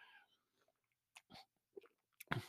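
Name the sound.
sipping beer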